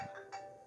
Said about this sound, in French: Cibole. Faut le fermer, son téléphone. Mais là, je réalise que c'est mon téléphone.